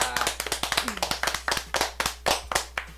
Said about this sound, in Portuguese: Ei, pra vocês aí, guris, gurias que gostam do rap, só temos uma coisa a oferecer para vocês. Hoje, uma salva de palmas.